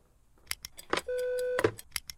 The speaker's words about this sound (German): Telefonhörer abnehmen war schon besser jetzt. Wieso, wie lang war es denn? 0,019 Minuten. 0,002 Minuten mehr als in der Zielzeitenliste vorgesehen.